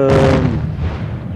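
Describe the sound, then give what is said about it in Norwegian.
A single heavy explosion from a bombardment goes off close by, a sudden loud blast that rolls into a deep, rumbling decay lasting over a second. “Eller så kan det komme kraftige smell veldig nære, hvor alt står og rister.”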